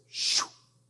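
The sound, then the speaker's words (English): A single short whooshing hiss made by a voice imitating an arrow flying through the air, rising quickly and then sliding down in pitch before fading, fairly loud. “You ever shot an arrow? What's it sound like going through the air?”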